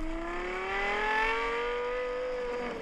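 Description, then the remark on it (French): A sports car engine revs loudly through its Yamaha-developed exhaust, a rich harmonic howl climbing steadily in pitch and then easing slightly, sustained for about three seconds with no talking. “Et là, l'échappement, ça a été développé par Yamaha, qui font aussi des instruments de musique, etc.”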